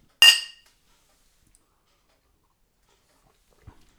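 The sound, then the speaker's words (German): A single bright, crisp clink of glasses touching in a toast, with a short ringing decay; then near silence and a faint low thump a few seconds later. “Ja, Prost.”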